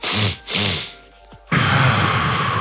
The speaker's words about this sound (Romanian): Dacă vreți niște, cum se cheamă, resurse, aveți blogul lui Huberman, care e mega fan pe respirație și care uh, povestește despre oftatul fiziologic. Adică, pe foarte scurt, două inspirații